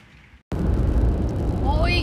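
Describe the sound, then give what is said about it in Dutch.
Steady, loud low rumble inside a car driving home, starting abruptly after a brief quiet moment, with a faint rising whine near the end. “Ik zit op dit moment in de auto, dus misschien dat het geluid iets minder goed is dan dat je normaal gewend bent.”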